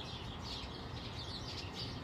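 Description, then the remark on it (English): Birds chattering in trees, a steady stream of overlapping chirps and tweets that sound fairly soft, set against a constant low background rumble with no one speaking. “I am grateful for birds chattering in the trees”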